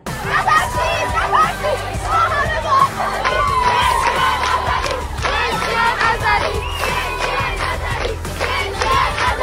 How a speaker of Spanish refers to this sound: Y niñas y adolescentes en la escuela se unen a la protesta al grito de no tengamos miedo estamos juntas. Y mujeres, vida y libertad.